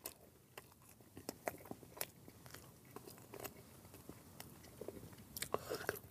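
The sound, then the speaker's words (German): Biting into a doughnut, then steady chewing: a run of soft, moist crunches and smacks repeating irregularly for several seconds, with no talking. “Lass uns jetzt einfach mal reinbeißen.”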